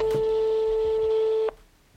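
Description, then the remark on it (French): A single steady, mid-pitched ringback tone of an outgoing phone call sounds for about a second and a half, then cuts off abruptly, leaving quiet line hiss. “Ceci étant dit, j'appelle aujourd'hui Mélanie dont je ne sais rien, si ce n'est que c'est une pote de Charlotte que j'ai interviewée il y a quelques jours.”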